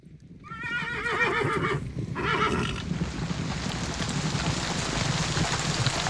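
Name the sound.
horse neighing and hooves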